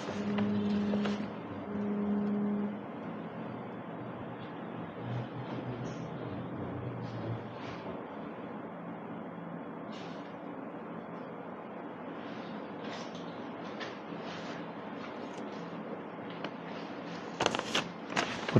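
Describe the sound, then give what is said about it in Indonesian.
Steady roar of street traffic with buses passing, a deep engine rumble and a brief droning tone near the start, and scattered clatters and bumps rising toward the end. “banyak bis”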